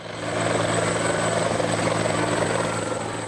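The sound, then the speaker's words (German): A helicopter drones loudly and steadily overhead, flying the new Orthodox metropolitan in to Cetinje, Montenegro, for his enthronement. Its rotor chop is a continuous rapid pulse with engine whine, rising in quickly and holding throughout. “Doch der neue Metropolit gibt nicht nach, lässt sich im Hubschrauber einfliegen, geschützt von Sondereinsatzkräften der Polizei mit Atemschutz und Maschinengewehren.”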